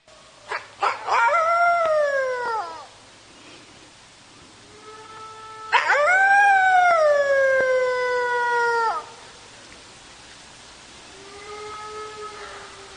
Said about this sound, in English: Let me just play you this beautiful clip of a red wolf vocalization. And they're different. They're they're oh, different than gray wolves.